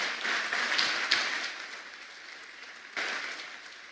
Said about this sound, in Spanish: Alguien puede darle un aplauso al amor grande de Dios.